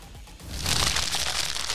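Crinkly rustling of a snack bag being rummaged through, starting softly and swelling after a moment into a steady, dense crackle with no voices.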